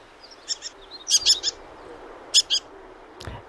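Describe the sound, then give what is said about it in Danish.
A citrine wagtail gives short, sharp, high-pitched calls in quick pairs and trios, clear, over a steady outdoor hiss with a few fainter chirps in the background. “Citronlæbstjert fandme et godt bud. Er det den der? Ja.”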